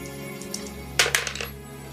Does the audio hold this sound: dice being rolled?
yes